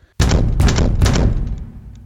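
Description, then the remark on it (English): Three loud, heavy knocks on a door in quick, even succession, each ringing out with a boomy resonance before fading away. No voices. “Someone really wants to get in somewhere, but if if the knocking isn't in the story, then it must be”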